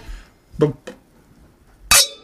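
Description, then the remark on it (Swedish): Wine glasses of red Ribera del Duero wine clink together once in a toast at a kitchen table at home, a bright chime that rings on briefly after a few short vocal sounds. “Skål!”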